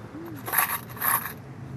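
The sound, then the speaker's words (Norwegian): A couple of coins tossed into a paper cup, landing in two quick jingling bursts, fairly soft, with no voices. “Det begynte altså en varm sommerdag for tre år siden, da hun eh, kasta et par mynter i pappkoppen”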